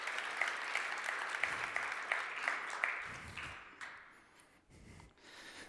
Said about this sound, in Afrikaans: Kom ons gee sommer vir die wat getuig hande klap vanoggend. Dis baie special.